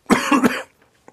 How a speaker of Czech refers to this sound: Klidně se napij trošku, ať si odkašleš, jo.